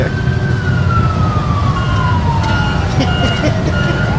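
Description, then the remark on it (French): Heavy truck engines rumble loudly and continuously, heard through an open window, while a siren-like tone slowly slides downward in pitch over the traffic noise. “Ouais, on entend bonhomme derrière les camions.”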